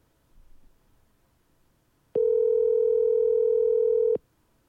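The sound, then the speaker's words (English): A steady telephone dial tone hums loud and unbroken for about two seconds as a call is placed, then cuts off abruptly, preceded by a brief faint rustle in otherwise quiet surroundings. “I'm going to call him and then you can you can ask him whatever you want”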